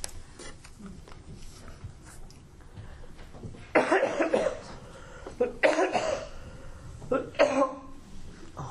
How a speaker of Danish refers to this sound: Undskyld. Ja, man kan altså ikke forhindre hoste.